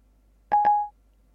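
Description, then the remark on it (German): A FaceTime call tone on an iPhone as a call is placed that will go unanswered: two quick chirping pulses that merge into a single steady beep, clear, with no voices. “Korthagen mit FaceTime anrufen. So, der wird jetzt wie gesagt ins Leere gehen”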